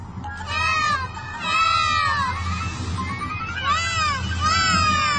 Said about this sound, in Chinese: 听起来像是恐龙宝宝的声音，我想他们是在求救。